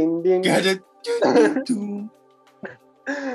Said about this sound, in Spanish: Weón, me puse a toser, weón, me puse a toser.